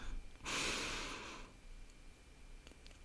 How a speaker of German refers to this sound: So, wir schließen die Augen und atmen dreimal tief ein und aus.